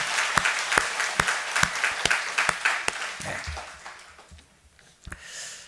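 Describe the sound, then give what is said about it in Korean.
A church audience applauds in thanks and glory to God for a new education hall for the children, a dense wash of clapping with a few louder, evenly spaced claps standing out before the applause thins and fades out. “이 일을 이루신 우리 하나님 앞에 감사 영광의 박수 한번.”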